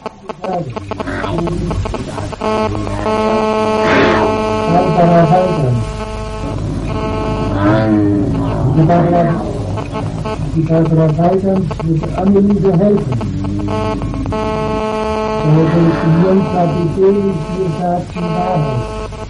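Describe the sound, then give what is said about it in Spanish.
Loud, continuous phone line interference: buzzing, warbling electronic tones that rise and fall with a garbled, almost voice-like quality, filling the whole stretch without a break. “Menuda interferencia se nos ha colado ahí, ¿eh?”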